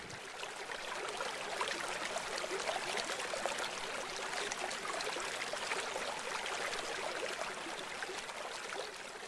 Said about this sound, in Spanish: ¿Ya escuchaste el río? Vas a escuchar el ruido del agua cómo corre entre las rocas lentamente.